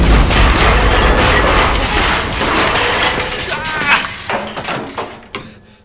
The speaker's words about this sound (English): a little warning before you blow open a cell door.